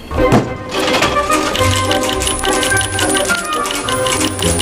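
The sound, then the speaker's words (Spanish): Coins clink and rattle as they drop and tumble, a steady stream of bright metallic taps and jingles for several seconds. “Ha descubierto las monedas.”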